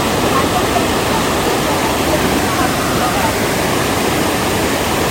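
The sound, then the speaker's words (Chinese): The Chunu (Virgin) Waterfall and its stream, heard from the middle of the Manzhu footbridge on the trail, pour on steadily, a loud, unbroken rushing hiss of water that holds the same level from start to finish, with no voices. “嗯，然后站在这桥中间，给大家听听这个。瀑布溪流的这个洗涤的声音。”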